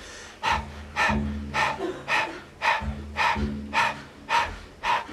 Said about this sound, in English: And if you need a little refresher on how to start breath of fire, open the mouth and begin to pant rhythmically like a dog.